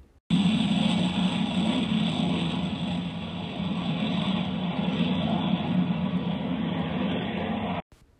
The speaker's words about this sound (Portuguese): E à distância, Flor já sentia até o avião.